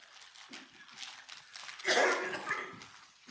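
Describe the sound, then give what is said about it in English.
A single sharp sneeze bursts out partway through, loud and breathy, with quiet murmuring voices and room noise around it. “Bless you.”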